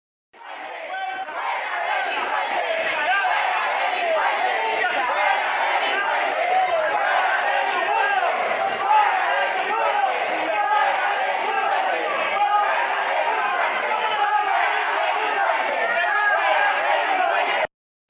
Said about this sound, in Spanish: todos gritaban fuera delincuentes, fuera delincuentes.